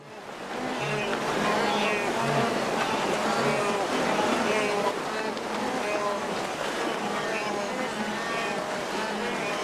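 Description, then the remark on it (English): A large herd of wildebeest crossing the Mara River in East Africa: a dense, continuous chorus of low grunts and moans over steady rushing, splashing water, loud throughout. “What you're hearing right now is the sound of wildebeest crossing the Mara River in Africa, and it's also the sound of the circle of life, because every year thousands of these animals don't make it.”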